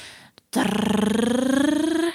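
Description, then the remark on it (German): A voice imitates a drumroll with a rapid, rolled trill lasting under two seconds, steady and loud, with a slight rise in pitch, preceded by a brief breath. “ich mache einen Trommelwirbel okay.”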